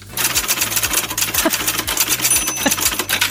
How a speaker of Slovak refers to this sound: som už taká stará, že som si úlohy písala ešte na písacom stroji. Na ten zvuk nezabudnem asi nikdy, aj keď je pravda, že moja kožná lekárka ho používa toho dnes. Tak to asi tento zvuk.